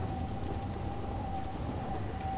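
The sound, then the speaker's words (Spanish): Steady, dense rainfall pours down continuously, a broad even hiss with scattered drops pattering on surfaces, as in a summer storm; no voices, and no clear thunder stands out. “Nada es más importante ahora que esta tormenta de verano.”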